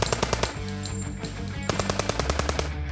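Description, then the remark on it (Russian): Rapid bursts of automatic gunfire crackle in quick succession during a brief exchange of fire between police special forces and gunman Omar Mateen inside a nightclub, sharp repeated shots with a brief lull before another volley resumes; no voices are heard. “После непродолжительной перестрелки в 5.35 полиция сообщила о том, что стрелок Омар Матин мертв.”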